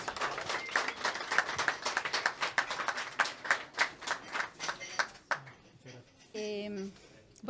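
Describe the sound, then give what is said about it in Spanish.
An audience applauds to welcome a poet, with steady, dense clapping for about five seconds, the claps thinning out and fading before a single voice starts speaking. “Un gran aplauso y bienvenida”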